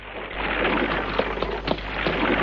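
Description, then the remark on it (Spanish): A steady, dense hiss of heavy rain from a thunderstorm breaking out as a horse-drawn carriage arrives, with a few sharper splashes standing out now and then. No voices, and no distinct thunderclap breaks through the downpour. “Llega una calesa al tiempo que estalla una tormenta.”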